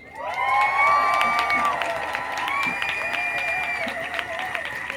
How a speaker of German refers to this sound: Bitte einen großen Applaus für die Drehbuchautorin und Filmproduzentin Katharina Mückstein.